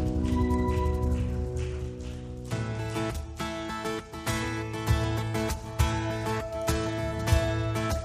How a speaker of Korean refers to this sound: 우리를 붙드시며 우리를 세우시는 주님께 감사와 찬양의 박수를 올려드리겠습니다.